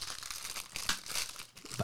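A fortune cookie's plastic wrapper crinkling continuously for under two seconds as it is unwrapped, a dense, bright crackle with irregular louder crunches, no voices.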